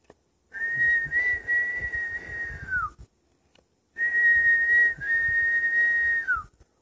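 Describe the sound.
Two long, steady whistled notes, each holding a bright pitch for a couple of seconds before sliding downward at the end, like a person whistling a birdsong imitation, clear with no talking.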